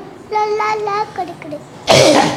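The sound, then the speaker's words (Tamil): A person imitates a puppy barking with a quick run of short, high-pitched yips, followed by a harsh, breathy burst. The voice is fairly loud. “அப்போ அந்த நாய்க்குட்டி என்ன செய்யுது குலைக்குது எப்படி குலைக்குது”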